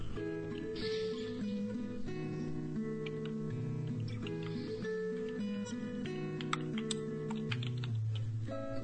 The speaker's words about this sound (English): I'll have macros set up next time so it's quicker. Mm. I'm just typing it out.